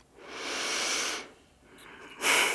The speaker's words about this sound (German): Ich äh, schnaufe.